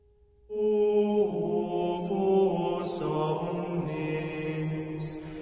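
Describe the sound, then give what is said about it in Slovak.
Sustained organ tones swell in after a brief silence and hold steady, shifting through a few slow chord changes at a fairly loud, even level with no voices, at the fourth Station of the Cross. “Nepovie slova, len sa díva na presvetého kráľa – potom sa ozvú tie isté organové tóny ako pri obraze piety v 13. zastavení.”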